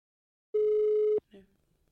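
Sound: outgoing phone call ringing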